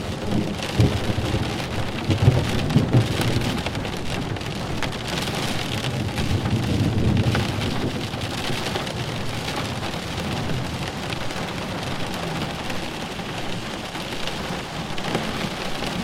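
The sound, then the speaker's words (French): Steady heavy rain pours down for the whole stretch, with low rumbles of thunder rolling underneath, loudest early on. No voices, just the continuous hiss and patter of a storm. “Votre attention, concentrée sur le bruit de l'orage, vous a fait oublier le stress et les tensions accumulées.”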